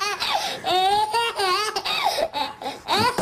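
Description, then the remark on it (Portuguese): A baby in a viral video laughs loudly in a string of high, squealing bursts with brief gasping pauses between them, continuing throughout with no one talking. “Pois lá, isto é aquele vídeo viral mítico do bebê.”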